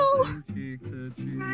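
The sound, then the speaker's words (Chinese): A cat named Brewster meows repeatedly, about four loud, drawn-out harmonic cries in quick succession, the first rising high before falling, the rest lower and steadier, while its owner records. “来来来， 斯特，我们家那个猫真的是，我一到录关键的时候就开始喵。”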